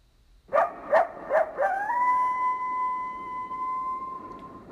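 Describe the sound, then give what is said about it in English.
Coyotes howling: three sharp yips, then a single long, wavering howl that rises and holds steady for several seconds. Moderately loud, with no talking. “tomorrow I'm gonna make a little hunting shack up by the woods up there where I heard them earlier”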